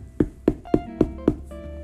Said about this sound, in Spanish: Caminando, encontraron otra casa y llamaron a la puerta.